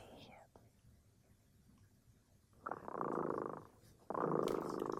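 The cat Dremota purrs in two breathy, rumbling cycles, one after a short quiet gap, like drawn-out inhale and exhale, with no talking.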